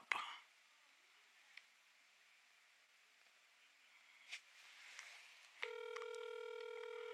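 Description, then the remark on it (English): A phone call being placed: a click and a few short dialing beeps, then a steady electronic ringing tone sets in and holds to the end, fairly clear with no talking. “You answered the phone quicker than I thought you would.”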